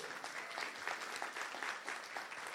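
An audience claps steadily together as applause to the Lord, a dense wash of many overlapping hand claps that holds at a fairly even loudness throughout, with no voices standing out.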